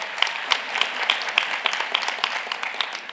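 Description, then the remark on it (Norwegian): A room full of people applauding steadily in a second round of applause, a dense patter of many hands clapping at once with a few sharper claps standing out, sustained throughout. “Gjerne klapp en gang til.”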